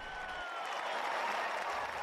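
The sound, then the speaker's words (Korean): A stadium crowd at a baseball exhibition game in Port St. Lucie, Florida, roars and applauds as Korean pitcher Park Chan-ho pitches. The cheering and clapping form a steady, dense wash that fills the short moment without any clear voices standing out. “오늘이 있기까지 너무도 오래 기다렸다는 듯 박찬호 선수의 점광석화 같은 볼이 타자의 가슴 앞을 파고들 때마다 관중들의 환호는 플로리다 벌판을 뒤흔들었습니다.”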